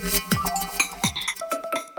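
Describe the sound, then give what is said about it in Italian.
A bright electronic chime melody rings out from Google Assistant as a reminder that the pasta is cooked. It is a quick, fairly loud run of clear tonal notes with sustained pitches, with no voices. “Potrei andare avanti ancora per ore, ma quello che senti è Google Assistant che mi ricorda che la pasta è cotta.”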